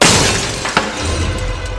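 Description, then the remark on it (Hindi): Glass bangles shatter with a loud, bright crash, then a quick sharp clink as pieces scatter, the brittle ringing fading over a couple of seconds. A woman's glass bangles break and scatter when she strikes her hand hard on a door frame while running out of a flat. No voices. “जिससे उसकी कई सारी चूड़ियां टूटकर बिखर गई थी”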